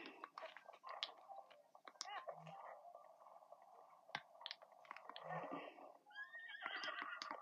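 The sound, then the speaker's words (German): A video game horse neighs loudly and repeatedly, with sharp whinnies and snorts over a busy background, ending in a long, shrill whinny. “Das Pferd ist überlaut.”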